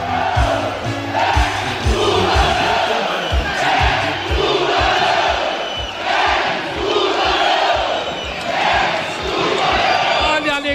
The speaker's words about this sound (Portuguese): alegria desta pequena torcida. 627 pagando 717 o público total.